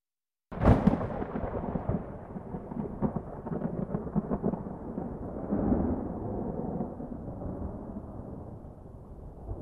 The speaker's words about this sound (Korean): 갑자기 천둥과 벼락이 치더니 청룡이 수염을 세우고 달려들기에 홍판서가 놀랍게니 한바탕 꿈이었다.